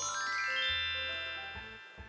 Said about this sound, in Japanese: 父ちゃんがキラキラな音楽にしてくれる。聞こえてる。